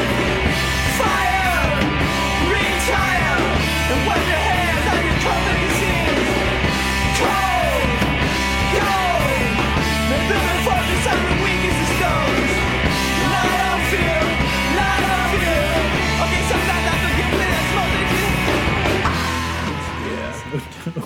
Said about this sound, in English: the scream is good.